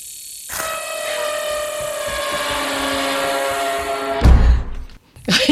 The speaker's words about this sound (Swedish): men där man hoppar till direkt, man kallar det också för jump scare. Mm. Och på lite mer tekniskt filmmusikspråk så brukar man tala om en stinger då, liksom. Mm. Och det låter ju så här.